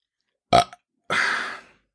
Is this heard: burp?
yes